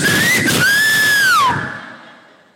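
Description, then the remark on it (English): A loud, piercing human whistle given as a signal by a person standing far from a house: a short rising note, a brief break, then a long sustained tone that dips down at the end and fades with a little echo. “And because of those kind of things, I stand very far from the house and I whistle.”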